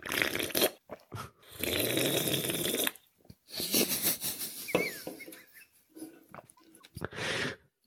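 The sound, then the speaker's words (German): Someone slurps beer from a can in the morning in a series of loud, airy, hissing sucks, some long and drawn-out, others short and gurgling, separated by brief pauses. No talking. “Ich trinke aus live aus der Dose.”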